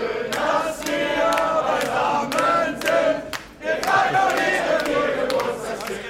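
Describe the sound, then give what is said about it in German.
A large concert audience sings along loudly and continuously, many voices blending into a dense chant with sustained tones and a few sharp accents, with a brief dip midway. “Man hört es am Publikum. was da mitsingt.”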